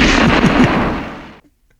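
A loud, crackling burst of gunfire sound effect, noisy and harsh with a quick rattling texture, lasting just over a second before cutting off into silence.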